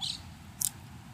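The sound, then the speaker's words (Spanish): Two short, high-pitched bird chirps, one at the start and one a moment later, sound over a quiet low background rumble, with no one talking. “estoy escuchando a las aves cantar, hermoso.”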